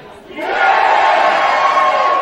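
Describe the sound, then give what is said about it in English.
A crowd erupts into loud, sustained cheering and shouting in response to the question "Are you ready?", swelling quickly within half a second and holding at a steady roar of many voices until the end. “They're into it. You might have heard that.”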